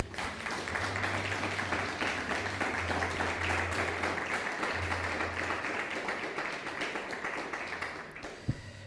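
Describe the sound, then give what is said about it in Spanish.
Sustained audience applause given to the Eternal (God) at the close of a religious teaching, a dense crackle of many hands clapping steadily for several seconds with a low hum underneath, ending with a single sharp thump. “Denle un fuerte aplauso al Eterno.”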